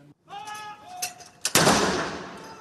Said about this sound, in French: 96 coups de canon sont tirés depuis plusieurs endroits emblématiques de la capitale anglaise.